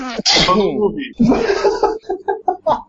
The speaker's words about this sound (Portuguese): Gente, vamos evitar de espirrar ao vivo, por favor. Difícil, hein? Ou pelo não, na frente da câmera.